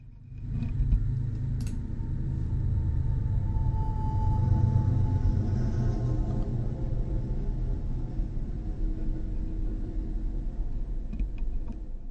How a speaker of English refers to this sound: Hold on, we got another vehicle coming. Hold on. Here it comes. Take a listen.